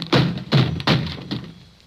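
A heavy trunk drops and tumbles with three loud, hollow thuds in quick succession, followed by a softer fourth bump as it settles, with no voices.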